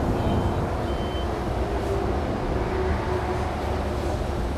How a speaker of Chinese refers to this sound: 那些货柜车跟货车经过声音很大，然后老板跟他朋友讲话声音也很大，好像所有的声音都放很大，然后更难静心。